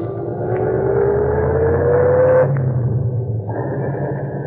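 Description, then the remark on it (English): A taxi engine hums steadily as the car drives north on the Post Road, a low continuous rumble with a gently rising whine, fairly loud, with no voices. “We went north on the post road.”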